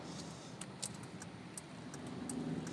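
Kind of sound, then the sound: vehicle, road traffic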